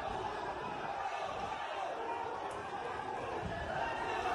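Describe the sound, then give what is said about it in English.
A dense, steady roar of a large mob storming an airport in Dagestan, carrying Palestinian flags and rushing toward the tarmac where a flight from Tel Aviv was supposedly landing. Many voices chant and shout "Allahu Akbar" together at a constant loud level, with no single voice standing out, continuing throughout without pause. “Just huge crowds of people carrying Palestinian flags rushing through the airport again, looking to get to the tarmac where this flight was supposedly landing from Tel Aviv.”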